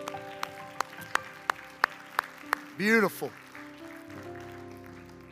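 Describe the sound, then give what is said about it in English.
A church audience, after a prayer, claps hands to the Lord in a steady unison rhythm, about eight sharp claps, then stops as a voice speaks a single word over a low, sustained hum. “Can we clap our hands to the Lord today?”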